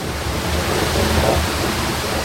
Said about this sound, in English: They came up past the Niagara Creek watermill with the great wheels spinning in emerald waters, dripping and splashing along the mill race.